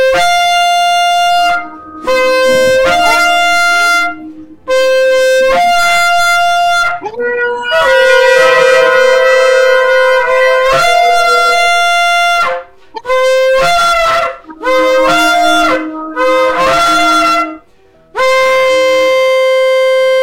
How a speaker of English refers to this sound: And with that, we blow the shofar to say, Bring it in, Lord, by the mighty name of Jesus. Amen. Right Amen. now, anybody has a shofar or any type of noise maker, feel free to to uh, blow that shofar.